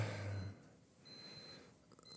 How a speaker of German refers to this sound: Und das ist der Wecker.